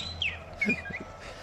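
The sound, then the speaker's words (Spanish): A parrot imitates robotic beeps and whistles: a quick run of short, chirpy electronic-sounding tones and a brief sliding whistle, fairly quiet over a faint low background hum, with no talking. “Esto es un loro, ¿eh? Esto no es R2.”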